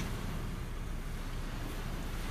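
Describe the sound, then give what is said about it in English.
Distant ocean waves on a beach make a steady, low rumbling wash that rolls on without pause, with a faint windy hiss and no voices. “Building driftwood cities on the beach distant waves.”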